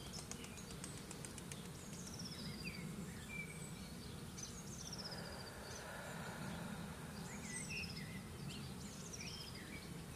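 Outdoor garden ambience with repeated high bird chirps and tweets scattered through, over a steady low buzzing drone of bees humming. No one speaks.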